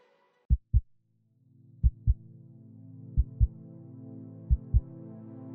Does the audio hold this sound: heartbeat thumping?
yes